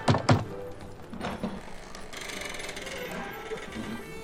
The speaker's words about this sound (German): Und noch während Scrooge sich mit einem Handschlag von dem erstaunten Mann verabschiedete, sah er auf der anderen Straßenseite die Pforte des Armenhauses. Er ging hinüber und klopfte.